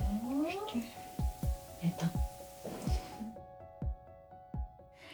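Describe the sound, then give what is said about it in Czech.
An umbilical cord being cut after a home birth: a series of about six wet, squelching snips in an irregular rhythm, fairly loud, over a steady electrical hum with a brief wailing tone early on. “Tak třeba tohle, co jsme slyšeli, tak eh, to byl moment, kdy se stříhala půpeční šňůra což takhle ve zvuku zní vlastně dost děsivě, ale ten moment doma vypadal vlastně celkem poklidně a idylicky”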